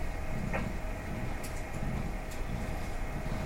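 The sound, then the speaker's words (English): Steady, unbroken static from a new radio, with no WWV signal heard, hisses across the whole clip at an even level, with a few faint clicks and ticks scattered through it and no voices. “They're static.”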